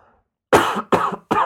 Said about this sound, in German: schneiden wir alles raus, das Husten.